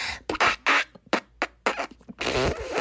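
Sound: long fart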